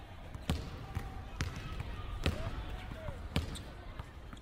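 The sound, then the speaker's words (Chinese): A basketball bounces on a court with four sharp, hollow thuds at a steady, unhurried pace, over a low murmur of background noise and a few faint squeaks. “走啦，还是打球实在。”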